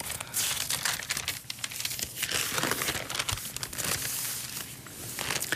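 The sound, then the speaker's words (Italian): Continuous paper rustling and crinkling as newspaper pages are handled and turned to follow an article continuing from page 1, with bursts of crisp crackle over about five seconds and no voices. “Scusate, ma gira da pagina 1 e devo”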